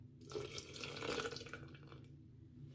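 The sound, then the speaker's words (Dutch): Water pours steadily into a carafe for about two seconds while making detox water, a bright splashing and trickling that tapers off at the end, with no one speaking. “Dus even een klein beetje water erbij.”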